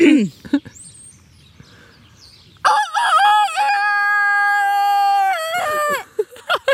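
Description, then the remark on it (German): On a farmyard, a person imitates a rooster's crow to see if a rooster answers: one loud, drawn-out cock-a-doodle-doo call lasting several seconds, following a stretch of quiet with faint noise, and ending in a few short breathy sounds. “jetzt traust du dich nicht einen Hahnschrei zu. Machen”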